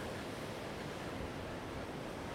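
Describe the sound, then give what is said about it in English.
Steady, dense roar of gale wind and crashing surf on a beach on the south coast of England, a broad continuous rush with no pauses, fairly loud, on an overcast, rainy day. No voices. “and so it's really sort of overcast and raining, and they're predicting gales for the south coast of England, which is about where I live, south coast of England.”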